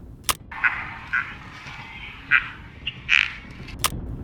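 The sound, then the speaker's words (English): A flock of sandhill cranes calls in an overlapping chorus, with rolling, bugling cries rising out of a steady din. A few louder calls stand out and two sharp clicks punctuate it. “And this one is a siege of sandhill cranes.”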